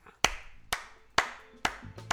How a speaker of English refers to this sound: We have to clap too? What? Well, no, no, I'm clapping to say this is a freaking cool episode.